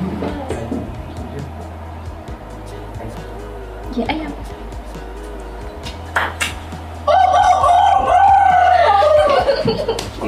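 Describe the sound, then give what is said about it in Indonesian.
A person imitates a rooster crowing with a loud, drawn-out, warbling call near the end, after a stretch of casual chatter and soft laughter. “Suara ayam.”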